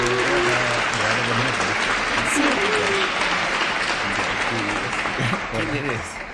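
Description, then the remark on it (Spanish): Sustained applause from a group for the show's first guest, its producer: a dense steady clatter of clapping hands lasting several seconds, with faint voices mixed in underneath and a slight tapering toward the end. “Un fuerte aplauso para nuestro invitado.”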